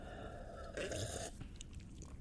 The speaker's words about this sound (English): Okay. And you're going to hear me slurp here.